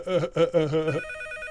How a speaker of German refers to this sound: oh, Telefon. Entschuldigen Sie mich kurz.